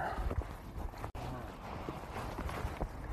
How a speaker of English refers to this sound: Well, shit. I got cattle coming my way and I'm pulling.